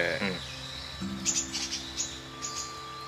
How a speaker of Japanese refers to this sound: こう今鳥の声とかさちょっと聞こえたけどさ